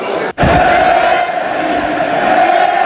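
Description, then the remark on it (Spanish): A loud stadium crowd at a football match chants "Messi, Messi, Messi" in unison during the first half, a dense, sustained roar of many voices with a steady sung pitch running throughout, broken only by a brief dropout near the start. “esos han sido los cánticos eh, de la primera parte a los que se refería algún oyente, los gritos de Messi, Messi, Messi.”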